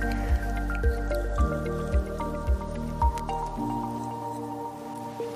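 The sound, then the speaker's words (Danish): A child's teeth being brushed on the outer sides with a toothbrush and fluoride toothpaste, the child's mouth slightly closed while the cheek or lip is gently pulled out; steady wet, squishy strokes repeating about twice a second for several seconds, with a faint tonal background and no talking. “Når du skal børste på ydersiden, er det nemmest, hvis dit barn lukker munden lidt, mens du let hiver ud i kind eller læbe.”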